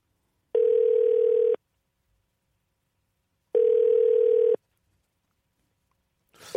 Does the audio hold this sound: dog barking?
no